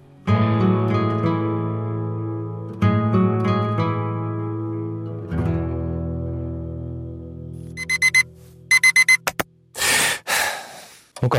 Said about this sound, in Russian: я поставил будильник и, как обычно, проспал.